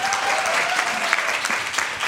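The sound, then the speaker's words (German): An audience in Hamburg claps steadily, a dense, continuous patter of many hands that stays fairly loud and even throughout, with a faint tone running underneath in the first half. “Einen großen Applaus dafür, oder?”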